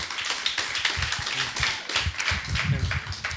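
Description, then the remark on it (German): A small audience applauds, a dense patter of many hands clapping at once, steady and moderately loud for the few seconds, with faint low murmuring underneath. “Könnt ihr ja gerne einen Applaus geben.”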